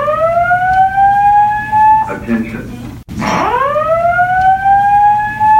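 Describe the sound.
A movie theater fire alarm blares a loud, steady electronic tone during a film screening, briefly broken by a muffled voice saying "Attention," then cuts out for an instant and sweeps back up to its continuous wail.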